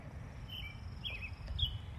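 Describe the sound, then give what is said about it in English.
A few short, thin bird chirps sound at intervals outdoors on a misty afternoon, fairly faint, over a steady low rumble of cars rolling up and down the road. No one speaks. “And so this misty afternoon, the cars are still rolling up and down the road, the birds are still singing, and God is still in control.”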